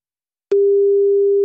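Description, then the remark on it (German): A steady electronic telephone line tone from a new telephone system, heard while a call is being placed, starts abruptly after a short silence and holds at one pitch, loud and clear, with no voices. “damit er nicht wieder in der Warteschleife landet wie die letzten zwei Male, weil diese neue Telefonanlage ist noch nicht so meins.”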